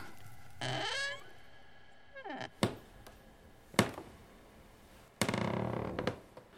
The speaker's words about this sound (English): And she heard what she thought was a kitten in the basement meowing.